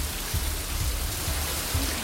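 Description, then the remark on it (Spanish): Heavy rain pours down in a steady, dense hiss in the province of Seville, Spain, where rain incidents were reported in Badolatosa, Morón and Dos Hermanas, with a low rumbling undertone that swells briefly every half second or so. No one speaks. “Emergencias de 112 se ha registrado una ventana de incidencias por lluvia en la provincia, en municipios como Badolatosa, Morón y también en Dos Hermanas, donde estas vecinas se mostraban así de sorprendidas.”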